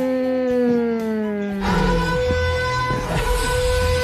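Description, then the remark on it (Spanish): A horn sound effect played at the end of the show blares in one long, steady, buzzy tone whose pitch sags slightly, then turns rougher and noisier for its second half. There is no talking. “la bocina del final.”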